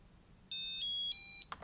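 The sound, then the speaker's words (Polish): A short electronic beep tone from a braille display, sounded after holding the first and last cursor routing keys plus D1 and D4 for about five seconds; similar to its power-on signal but slightly higher, bright, holding steady under a second before cutting off, followed by a faint click. “Naciskamy pierwszy i ostatni kursor routing, a następnie D1 i D4 i przetrzymujemy przez około 5 sekund, aż usłyszymy podobny sygnał do tego, jak się włączało monitor brailleowski, ale trochę wyższy.”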